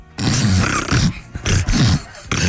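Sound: voice imitating a dolphin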